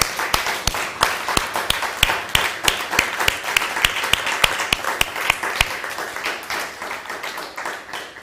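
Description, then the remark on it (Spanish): Steady crowd applause at a worship gathering, with a loud, rhythmic clap cutting through about three times a second, lively, easing off slightly toward the end. No one speaks. “un fuerte aplauso, con cohetes y todo la cosa.”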